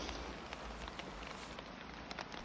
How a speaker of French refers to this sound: Oh là là, tonnerre et pluie toute la nuit.